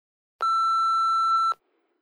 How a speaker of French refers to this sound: Si ce que vous avez à dire vaut le coup, n'hésitez pas à laisser un message après le bip.